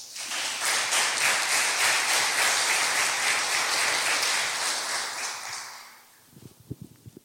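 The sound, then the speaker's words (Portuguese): Sustained crowd applause for Jesus, a dense wash of many hands clapping steadily for about six seconds before fading out, followed by a few scattered low thumps at the end. “Vamos dar um aplauso para Jesus.”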